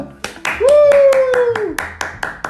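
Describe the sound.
Steady, rhythmic hand clapping, about a dozen crisp claps at an even pace, while a voice holds a long, slightly falling cheer-like note through the middle.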